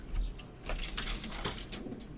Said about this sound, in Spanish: Te estarás preguntando qué hace esa paloma que se acaba de pasar